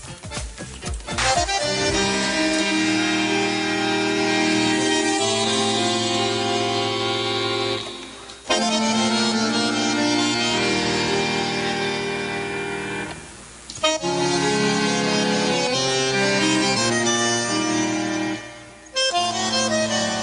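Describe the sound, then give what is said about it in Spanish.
A tango plays loudly with sustained reedy chords that swell in long phrases, broken by brief pauses between sections, and no voices are heard. “Eh, para entrar en tema, vamos a escuchar un tango antes de comenzar la lectura de la semblanza.”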